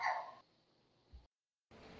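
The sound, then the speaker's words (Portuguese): A single sharp dog bark sounds at the start, fairly loud, in the background of a recorded Mother's Day message, followed by quiet room tone, a brief low thump, a moment of silence, and then a steady hiss. Nobody speaks. “registrando a presença dos cães que se fizeram ouvir ao fundo da minha mensagem de Dia das Mães.”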